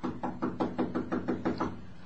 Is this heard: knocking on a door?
yes